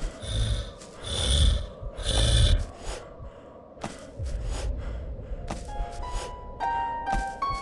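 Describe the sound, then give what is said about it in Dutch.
A video game monster on the left growls in deep, snorting bursts, three loud ones close together at first, then rougher rumbling continues while thin electronic tones chime in toward the end. “Links hoor je al een monster.”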